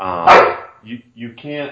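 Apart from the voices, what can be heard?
dog barking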